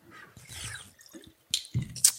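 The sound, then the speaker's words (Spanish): Wet sipping sounds of someone drinking sea water, with a short slurp and a couple of sharper gulps and drips near the end, no talking. “A lo mejor necesito beber un poquito de agua de mar.”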